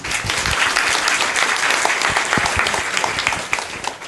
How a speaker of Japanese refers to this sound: 質問のある方は、えー、あ早いですね素晴らしいですじゃああの最初の応援の拍手をお願いします